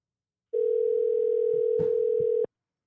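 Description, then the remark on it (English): A phone ringback tone while a call is placed: one steady, mid-pitched electronic hum lasting about two seconds, with a few faint clicks partway through and no talking. “Let's call this Doggy up.”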